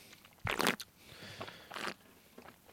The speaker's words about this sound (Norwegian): Du slurper.